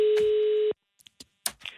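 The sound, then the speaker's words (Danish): A single steady telephone ringing tone sounds loud and clear through the line for under a second as someone phones a competition winner, then cuts off, followed by a few brief clicks and rustles as the call connects. “Prøv lige at ringe til ham. ringer lige til ham.”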